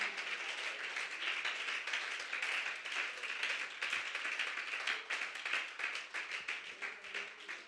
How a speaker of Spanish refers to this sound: Si Él ha guardado a alguien más aquí del peligro, bríndele ese aplauso a Él con todo su corazón.